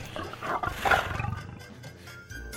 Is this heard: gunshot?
no